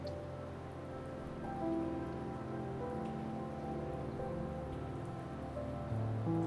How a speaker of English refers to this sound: Close your eyes and let the falling rain wash down upon you tonight.